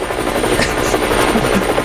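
A helicopter's rotor drones loudly and steadily, a dense, pulsing whir filling the whole stretch with no pauses and no talking.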